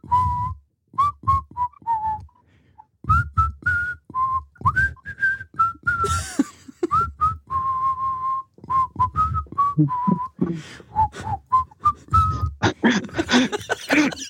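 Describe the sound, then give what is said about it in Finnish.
A person whistles a melody, clear pitched notes shifting step by step in short phrases with brief pauses, steady and fairly loud throughout. “Tuo on varmaan semmonen vihellyksen kirkastusjuoma.”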